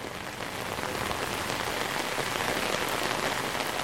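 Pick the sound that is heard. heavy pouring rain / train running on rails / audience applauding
heavy pouring rain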